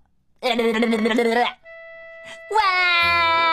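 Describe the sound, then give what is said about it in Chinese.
A little boy, the narrator's younger brother, cries in two loud, drawn-out wails separated by a brief steady tone, the second wail sliding downward in pitch. “弟弟哭了。”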